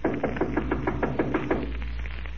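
A quick run of about nine firm knocks on a door, evenly spaced and lasting just over a second, followed by a short quiet stretch with a low background hum.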